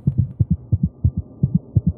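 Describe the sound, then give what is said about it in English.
A muffled, low heartbeat coming from a jar, heard from about 10 feet away, thumps in quick, steady lub-dub pairs, about six beats in two seconds, over a faint hum with no voices. “At five, at about 10 feet out, the heartbeat can be heard from this jar.”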